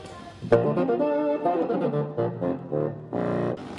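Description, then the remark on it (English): A reedy bassoon melody played through a pickup and doubled by an effects pedal into parallel fifths, with sustained notes and short phrases played fairly loud, with no voices. “He also has an effects pedal. So it's like I'm playing fifths with myself.”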